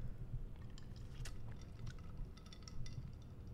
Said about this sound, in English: So for you audio listeners, I took a sip of the glass and then real subtly I licked like licked up the little drop off the tip.